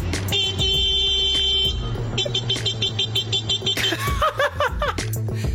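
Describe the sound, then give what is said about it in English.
A man's voice mimics a car horn, blaring a few sustained, harmonically rich honks in a row, with chuckling and laughter breaking in between and after the beeps. “He isn't being interrupted by the car, he is making making yes. the car sound.”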